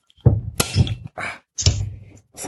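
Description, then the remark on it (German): A bottle of home-brewed Willy Wombat and the Tonka Factory Pastry Stout, a dark beer, being opened: several dull thunks and knocks, then short bright hissing bursts as the cap comes off, with no one talking. “wir haben hier das von dir gebraute Willy Wombat and the Tonka Factory Pastry Stout. Das machen wir jetzt eben auf.”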